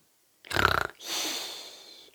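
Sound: snoring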